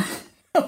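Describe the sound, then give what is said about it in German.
A sneeze, with a fading breathy tail at the start, a brief hush, then one sharp, loud explosive burst. No one speaks over it. “Ähm, Gesundheit.”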